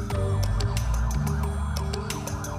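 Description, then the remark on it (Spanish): Wailing emergency vehicle sirens rise and fall in repeated sweeping arcs over a low rumbling engine drone, loud, with no voices, heard day and night in a city in Spain during a disease outbreak lockdown. “Se escuchaban sirenas día y noche.”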